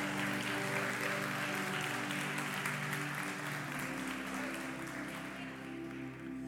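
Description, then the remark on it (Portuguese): An audience applauds Jesus during a church sermon, steadily for several seconds, a dense, sustained wash of clapping, with a low sustained musical tone humming underneath throughout. “Se você está entendendo, por favor, levanta a sua mão aí, dá um glória, aplaude a Jesus, diga assim: Jesus, conta comigo, eu vou ser luz.”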